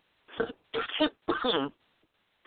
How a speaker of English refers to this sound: this cough is not good for me. I don't know what's going on with it.